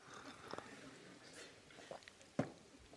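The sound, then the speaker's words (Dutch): Quiet sipping of water: a few soft slurps and swallows with brief pauses between them, and no one talking. “Ik neem wel even een slokje van mijn water.”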